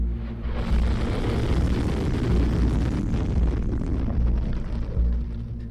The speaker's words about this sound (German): Videoaufnahmen des russischen Verteidigungsministeriums. Sie zeigen den Test einer neuen ballistischen Interkontinentalrakete vom Typ Sarmat.